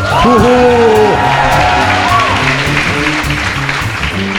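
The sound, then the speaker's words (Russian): A live crowd at the In Liberty venue cheers loudly, with several high rising whoops and shouts over a dense roar of voices that continues steadily throughout. “Но помимо нас здесь еще толпа людей. Дайте шуму.”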